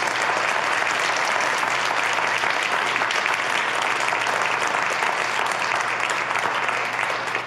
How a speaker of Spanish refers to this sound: ¿Cuántos lo van a hacer? Ah, si lo vas a hacer, dale un aplauso a Jesús.